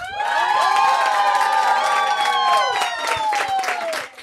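A loud crowd bursts into applause and cheering for a final important thank-you, with high shouts and whoops layered over dense clapping that holds steady for several seconds.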